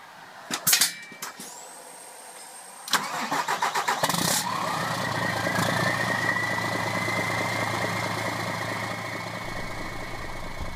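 A few clicks and clunks, then a bookmobile's engine cranks in rapid pulses, catches, and settles into a steady rumbling idle that carries on to the end.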